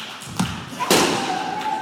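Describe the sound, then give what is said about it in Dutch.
Feet stomp down on a balloon to burst it: a soft thump, then a loud sharp crunching impact, and another lighter thud, over a faint steady background hum. “Stampen maar stuk.”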